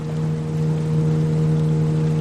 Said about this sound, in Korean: 그녀는 나에게 손을 흔들고 있고 점점 가까워지고 있다. 그녀는 선외 모터의 속도를 낮추더니 내 배를 선회하며 다가온다.